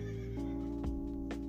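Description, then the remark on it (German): A horse being ridden along a path whinnies loudly, a short shrill neigh with wavering pitch and a few snorting bursts, alone with no voices. “da reiten wir am besten mit dem Pferd hin.”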